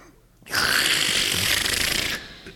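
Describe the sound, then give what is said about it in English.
A voice lets out a single loud, raspy, sustained screech lasting under two seconds, harsh, imitating a pterodactyl's shriek before cutting off abruptly. “That's- basically that's said was his, that's, that's close to his pterodactyl sound.”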